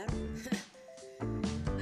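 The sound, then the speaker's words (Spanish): A doorbell chime, used as an intro, rings out in a short sequence of clear tonal notes, moderately loud, framed by brief fuller bursts of sound before and after. “Tuve que volver a agregar el timbre de puerta como intro, entonces pues bueno, ahí está.”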